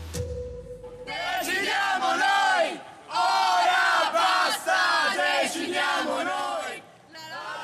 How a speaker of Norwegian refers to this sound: Vi skal først til Italia, der nei-siden jubler og roper 'nå er det nok', og vi bestemmer nå. For de vant en klar seier i folkeavstemningen i går.